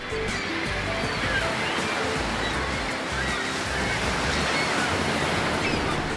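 Steady, broad rush of ocean surf breaking on a beach, a continuous wash of waves heard fairly loud, with no voices over it.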